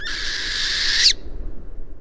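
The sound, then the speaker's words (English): A northern hawk owl, a medium-sized owl of northern boreal forests, gives a single harsh, high-pitched screeching call that holds steady for about a second, fairly loud, then cuts off, leaving faint background hiss. The call was recorded on a phone. “Uploading the sound to BirdNET, an online tool, matched the call to a northern hawk owl a medium sized owl that lives in northern boreal forests.”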